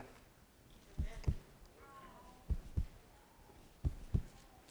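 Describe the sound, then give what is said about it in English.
A heartbeat sound effect: three deep lub-dub double thumps, evenly spaced, with a faint tonal hum lingering quietly between the beats. “Do you hear the heartbeat of God?”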